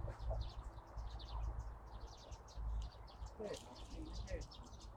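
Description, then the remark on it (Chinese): Sparrows chirp repeatedly in quick, high-pitched bursts, calls scattered throughout over a steady low rumble of background noise. “这是小麻雀。”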